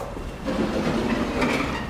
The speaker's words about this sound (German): So, der Geräuschpegel hier draußen ist natürlich schon gleich ein ganz anderer. Straßenbahnen, vorbeifahrende Autos, viele Menschen.